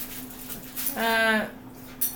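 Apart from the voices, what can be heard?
dog whimpering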